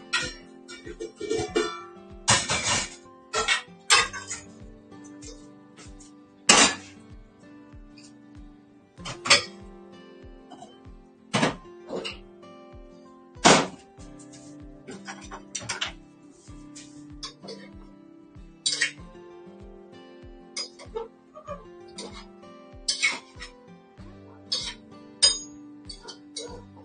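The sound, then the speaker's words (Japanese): Metal kitchenware clanks and clatters as a large cooking pot is taken out and readied for cooking, with a few sharp loud knocks among lighter clinks over a steady rhythmic background. “で、えー、大きいお鍋を用意します。”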